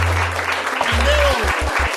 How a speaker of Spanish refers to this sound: Le vamos a darle un aplauso a …. Duro, duro.